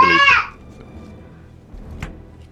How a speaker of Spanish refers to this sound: Ah, y ahora se tira al piso, hará su llanto, como ustedes lo escuchan, hará, su llanto melodramático de Hollywood turco.